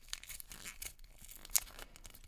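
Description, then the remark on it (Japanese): A paper packet of Death Note trading clear cards (Light vs L, 2 cards from 20 kinds) being torn open in a series of short ripping bursts, with one sharper tear near the end; no one speaks. “続いて トレーディングクリアカードコレクション、えー、ライト VS エルニアということでこちらは20種から2枚入ってるこれは鏡じゃなくて破った方がいいないけます紙の袋”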